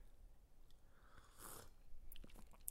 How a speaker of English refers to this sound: Let me just take a quick sip of coffee here.